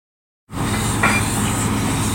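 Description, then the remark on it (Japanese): After a brief silence, steam venting at the Sarulla geothermal power plant in Indonesia bursts in abruptly as a loud, steady roar: a broad hiss over a deep rumble that holds constant to the end. “インドネシアサルーラ地熱発電の蒸気の音その蒸気は水に帰り地中深く戻っていくそんな再生可能なエネルギーは街に明かりを灯し続けます”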